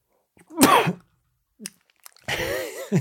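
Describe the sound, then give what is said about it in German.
A person sneezes twice, loud: a sharp explosive burst, a short intake of breath, then a second longer sneeze with a breathy, voiced tail. “Eine Sekunde, ich muss niesen.”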